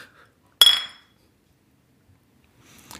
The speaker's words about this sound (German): Na, dann können wir jetzt anstoßen. Ja, mach mal. Prost. Prost.